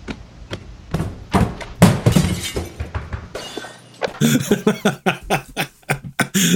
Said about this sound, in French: Moi, ce que je veux faire, c'est mettre le scène puis et pause une fois qu'elle est de l'autre porte, mettre un bruit de madame qui déboule les marches.